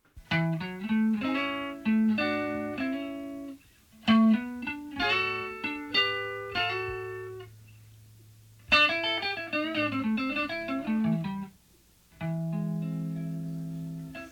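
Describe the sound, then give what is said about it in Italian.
A soft, smooth electric blues guitar plays sustained, singing phrases over a low bass line, with brief pauses between licks; no voices, just the instrumental band. “Lui eh, era un artista che eh, aveva un eh, blues soffice, avvolgente, molto morbido, non era di quelli con le schitarrate belle toste.”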